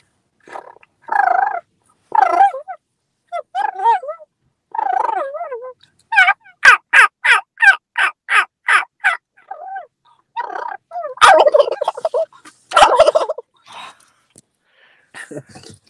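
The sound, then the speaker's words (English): A person imitates turkey calls by mouth without using any call, starting with a run of short, evenly spaced simple hen yelps and then shifting into a rough, rolling purr. It sounds fairly loud, with no talking. “And I'll, I'll, go into like a, a little bit of a purr.”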